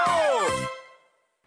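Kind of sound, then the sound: human body sound, yawn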